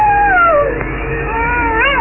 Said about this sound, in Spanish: Un lobo aulló en los solitarios páramos